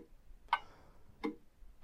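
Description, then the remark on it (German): A wall clock ticks steadily, three sharp clicks about two-thirds of a second apart, fairly quiet with nothing else going on around them. “Sie weiß noch nicht, ob sie dann weiter ticken kann oder ob sie vielleicht verschwindet?”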